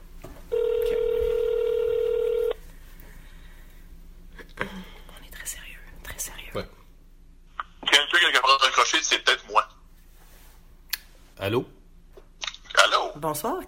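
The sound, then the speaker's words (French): A steady, loud telephone tone hums for about two seconds as a call is placed again, then stops. Quiet whispering and soft, breathy speech follow over faint background noise. “On rappelle. C'est parti.”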